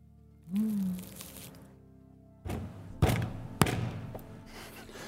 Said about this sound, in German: Und du klopfst noch doller gegen die Tür und dann hörst du oben aus einem Fenster, das aus dem Dach raussteht, ein ja, ja, ich komme ja gleich runter.